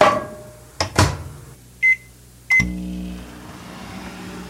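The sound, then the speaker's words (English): A microwave oven heating spaghetti bolognese: a door clunks shut, two short electronic beeps sound, then the oven starts up with a steady, low droning hum that continues to the end. “Pop it in the microwave here.”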